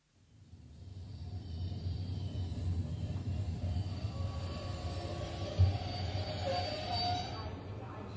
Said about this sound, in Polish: Jak sobie Państwo zapewne przypominają z poprzednich lekcji, wsiedli oni do pociągów Aachen i jechali przez Kolonię, Zagłębie Rury i Hanower. Są właśnie u celu podróży i wysiadają na berlińskim dworcu Zoo.